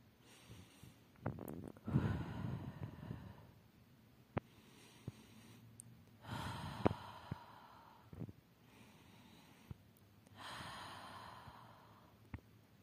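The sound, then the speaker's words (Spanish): Slow, deep breaths drawn in and let out as a minute of breathing exercise, about three full cycles with quiet pauses between them and no talking. “Recuerda tomar un minuto de respiración para poder disfrutar el cuento.”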